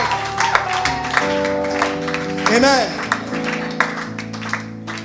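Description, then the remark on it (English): Scattered clapping from an audience runs through the moment, moderately loud, over sustained musical tones, with a voice rising in a brief exclamation partway through. “Oh, oh, are you clapping or”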